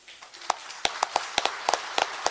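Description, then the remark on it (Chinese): Scattered hand claps from an audience welcoming two speakers both named Feng Keli, about a dozen sharp, irregular claps over a couple of seconds, fairly soft and thin rather than a full ovation, with no talking. “现在我们以热烈的掌声，有请两位冯克利。”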